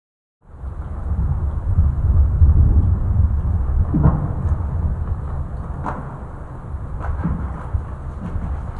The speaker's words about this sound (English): Another dimension of these glaciers is that they actually have a sound. A sound? Yeah, it, it, it sounds really menacing. So Cora Rose from the Art We There project was kind enough to let us play a recording she made of a glacier.